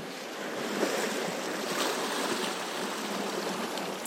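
Ocean waves churn in a steady, dense rush of surf, with a few slightly stronger swells rising out of the constant wash. No voices are present.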